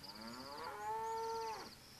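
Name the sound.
cow mooing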